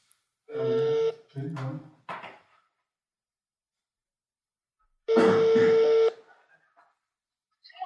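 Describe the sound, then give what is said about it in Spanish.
A phone placing a call to the speaker's sister on speakerphone: a steady electronic tone and a few short buzzy bursts, then after a pause of several seconds another steady, one-second ringing tone. “¿Le marco a mi hermana?”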